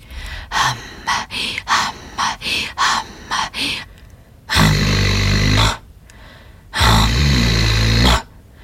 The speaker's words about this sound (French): Donc je sonorise Hamma sur l'expiration et je sonorise l'inspiration comme je le veux.